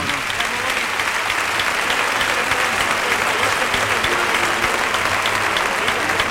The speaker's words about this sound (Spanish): Ahí sale hasta la primera raya de picar Daniel Luque. Ah, Cogida el capote por la esclavina con la mano izquierda y la montera a la derecha saludando esta fortísima ovación del público.